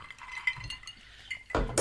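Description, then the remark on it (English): Drinking glasses clink together in a toast a few times in quick succession, bright, with a sharper, louder knock near the end and no voices. “Uh, cheers, cheers, cheers, cheers, I've actually finished my.”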